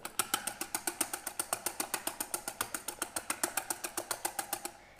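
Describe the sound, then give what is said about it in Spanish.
An electric mixer beats egg whites to stiff peaks at high speed, a steady motor whir with fast, regular ticking pulses throughout, loud and with no one talking. “Ahora estas claras las tengo que batir, ¿sí? Las tengo que batir. Y quiero que esté esponjoso”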